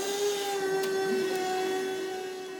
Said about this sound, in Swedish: Thomas Bruse kör av och an med sin truck inne i hallen.